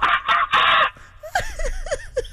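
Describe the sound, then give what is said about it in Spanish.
Harsh, loud squawking bursts give way to a quick run of rising-and-falling chattering calls, a mimicked blend of monkey screeches and chicken clucks, with no talking. “Pero es como que un mono con gallina”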